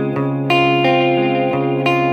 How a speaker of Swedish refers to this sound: i stereo. Och ni hör att det blir det blir bredare, men framförallt hör ni att studsarna hörs tydligare.